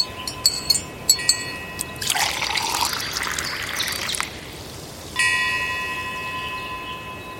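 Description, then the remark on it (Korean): A temple wind chime at a mountain temple in Gurye, South Jeolla, Korea, tinkles with a few quick metallic strikes, then a rush of trickling, water-like noise takes over before another bright chime rings out and slowly fades. “어떤 그 어, 산사에서 풍경 소리를 들으면서 차를 마시는 여러분들의 느낌이 느껴지는 코로나 시대에 즐거운 여행 되시기 바랍니다.”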